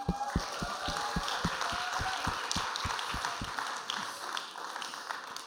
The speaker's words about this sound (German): Und jetzt möchte ich noch jemanden auf die Bühne bitten. Ähm, es ist der Pastor von dieser Kirche. Und er wird mit mir ein Interview machen. Ein großer Applaus,